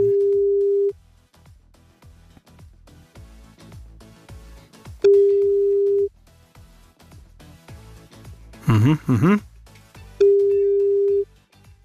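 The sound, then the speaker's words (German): An outgoing call placed from a computer by pressing the green call button; its ringback tone repeats three times, a steady one-second buzz every few seconds, clear, with a short murmured voice in one of the gaps. “Einmal lassen wir noch klingeln.”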